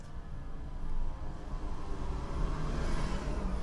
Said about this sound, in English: Here's a fire engine coming down the street now.